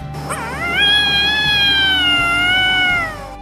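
A kitten lets out one long, loud yowl as a small child hugs it tightly against its chest; the yowl swoops upward at the start, then holds a steady, high, whining pitch for about three seconds before trailing off, with no voices around it.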